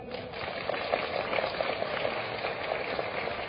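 An audience applauds the company Aidomei at a talk on its direct-sales business, a dense, steady patter of many hands clapping at once, holding at an even, moderate loudness throughout without any voices over it.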